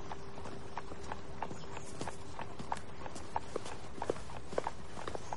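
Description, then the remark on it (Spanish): A horse-drawn carriage moves along a street lined with Georgian-style terraced houses, hooves clip-clopping in a steady, even rhythm of sharp knocks over a constant rumble of wheels, with a faint low hum beneath. “Un carruaje circula por una calle con casas adosadas de estilo georgiano.”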